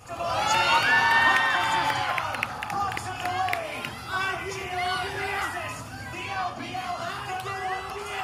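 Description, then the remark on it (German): A crowd of e-sports fans, as in countries like South Korea, screams and cheers loudly as they welcome e-sports players, with high-pitched shrieks peaking early on, then continuing as a dense, excited roar of voices and shouting throughout. “Sie werden von kreischenden Fans empfangen.”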